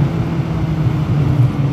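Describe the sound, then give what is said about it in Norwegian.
A motorcycle engine drones steadily as the rider overtakes a car in a 70–80 zone with queued traffic, a low, even rumble that holds its loudness throughout with no voices present. “jeg måtte bare stoppe en litt konsentrasjon og kjøre forbi her.”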